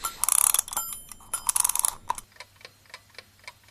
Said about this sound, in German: ich werde mal hier diesen, diesen Wecker aufziehen, wie immer.